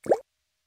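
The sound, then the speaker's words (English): A single water droplet plops once, short, with a quick rising pitch before cutting to silence. “This is the sound of regular water droplets.”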